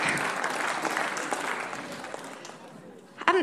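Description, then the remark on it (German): Dense applause from an audience for the first row of the outer seating block, a steady wash of many hands clapping that fades toward the end before a brief voice cuts in. “Okay, ein Applaus für diese erste Reihe hier im Außenblock.”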